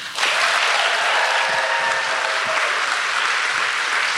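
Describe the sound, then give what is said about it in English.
Sustained audience applause welcoming Marta Kauffman, a dense, steady wash of many hands clapping at an even, loud level throughout, with no pauses and no voices standing out. “You're going to have to clap for a while.”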